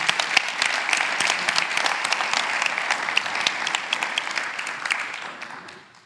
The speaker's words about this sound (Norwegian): Hvem i all verden er du og meg og, og disse som leder lovsang? Men man må gi dem en skikkelig klapp.